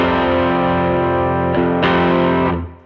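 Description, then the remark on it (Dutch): A loud, distorted electric guitar riff from a Telecaster, thick sustained chords with a couple of sharp restrikes near the end before the sound is cut off and fades. No one speaks. “Echt tof is aan deze Telecaster is dat, hij, heeft een soort laag nog of zo, wat, eh, wat, wat veel Telecasters missen in, in die achterste pick-up.”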